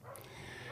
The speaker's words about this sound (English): And uh, just if you hear the dogs barking in the background, unfortunately, that can't be helped.